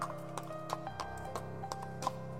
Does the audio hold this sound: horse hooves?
yes